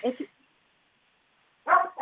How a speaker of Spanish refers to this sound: Ahí hay un perrito.